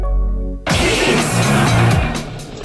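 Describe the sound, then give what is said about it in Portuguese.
A car engine hums low and steady, then abruptly bursts into a loud, roaring rev that holds for about two seconds, with no one speaking. “Que carro é esse, rapaz?”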